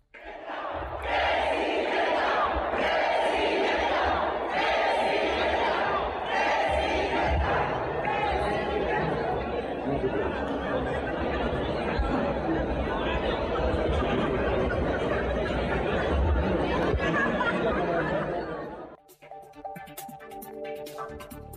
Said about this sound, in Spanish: el momento en el cual se empezó a a escuchar el grito de presidenta, presidenta, presidenta